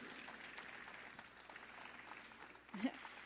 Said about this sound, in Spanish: We just want to give you guys an applause. You guys are, heroes this weekend. so this applause is for you guys.